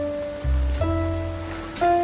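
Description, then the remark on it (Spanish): Steady rain falling, a continuous soft hiss with no distinct drops standing out. A low, sustained hum runs underneath, and no one speaks. “Subile, subile un poco, subile un poco, Mira, llueve.”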